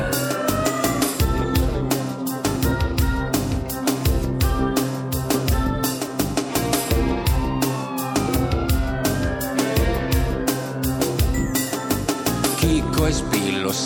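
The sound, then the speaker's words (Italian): A wailing police siren rises and falls repeatedly over a loud, driving beat with heavy bass, the siren's long sweeping tones cutting through the dense music throughout. “Scappa presto, non fermarti, corri cazzo, non voltarti, la sirena è quella della polizia.”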